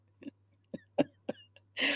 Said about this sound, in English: And of course, I'm like burping, and that's, I'm so ashamed.